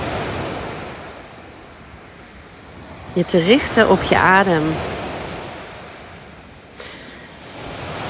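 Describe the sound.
Steady, rushing surf of sea waves on a shore on Crete fills the whole clip during a seaside meditation, with a gentle swell in loudness; a calm voice speaks briefly over it partway through.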